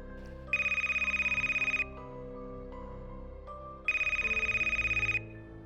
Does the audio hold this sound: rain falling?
no